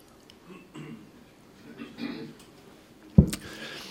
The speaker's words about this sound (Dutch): Ik neem even een slokje van onze...